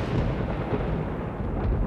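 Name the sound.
thunder rumbling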